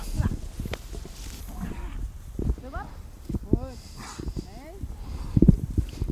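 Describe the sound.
Hooves of several cows thud and clop unevenly on the ground at a slow pace as the cows walk toward the barn, while voices murmur now and then in the background.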